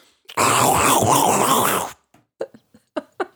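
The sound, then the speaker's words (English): Someone mimics wrapping paper being unwrapped with their mouth: one long, loud, crackly rasp lasting over a second, then a handful of short, softer crinkling bursts. “Make Why? wrapping paper unwrapping noises. Go.”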